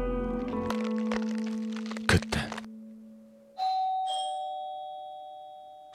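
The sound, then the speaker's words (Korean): A doorbell chimes with a two-tone ding-dong, followed by a sharp crack or thump, then a second bright chime rings out and slowly fades; no voices are heard. “순간의 침묵을 깨버리듯 초인종 소리가 들려왔다.”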